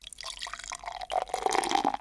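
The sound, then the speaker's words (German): A can of Sierra Nevada beer cracks open with a brief hiss, followed by the steady, gurgling splash of the beer being poured into a Pale Ale glass, rising in pitch as it fills. “Ja, erstmal macht es schon Spaß, die Dose zu öffnen.”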